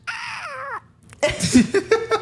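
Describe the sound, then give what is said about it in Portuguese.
A person makes a high, warbling squeal that wavers and slides downward, like a bird chirp or a hurt cat's yowl, followed by bursts of laughter. “a gente não sabe se é um passarinho ou se é um gato com que foi teve o rabo pisoteado, mas esse é o talento”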